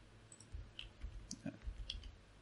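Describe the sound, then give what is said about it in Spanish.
A few soft keyboard key clicks tap out at an uneven pace, quiet, over a low background hum with no one talking. “Qué lindo, pensé que se me murió el teclado.”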